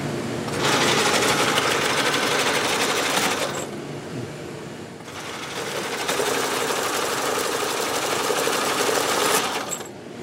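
A loud, rapid mechanical clatter of the punch card reader of an IBM 1401 computer at the Computer History Museum in Mountain View, its little knives grabbing the cards and sliding them in, running in two long bursts with a short pause between, with no one talking.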